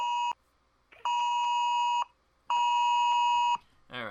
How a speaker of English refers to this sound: Okay, we just got the. Uh, that's tornado warning. Yep.